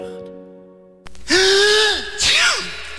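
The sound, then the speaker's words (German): A single loud sneeze: a drawn-out, rising vocal intake followed by a sharp, noisy burst that trails off, with no talking around it. “Gesundheit.”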